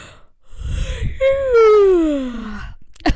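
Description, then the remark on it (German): A tired person yawns: a breathy open-mouthed intake, then a drawn-out moaning tone that slides steadily downward for over a second, ending with a small click. “Und gefühlt war die Hälfte gähnen und wir sind müde.”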